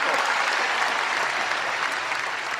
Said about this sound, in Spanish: Jesús, ¿tú crees que escenas como esta que, estamos escuchando de Zapatero en un mitin de 2008, los baños de masas, eh, los mítines siguen funcionando?